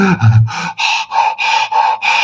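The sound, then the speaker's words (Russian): A person imitates the shortness of breath of heart failure with about eight rapid, breathy gasps in quick succession, fairly loud, each short inhale and exhale pushed out in an uneven panting rhythm. “Вот это одышка, ну, конечно, немножечко утрирую, сердечная недостаточность.”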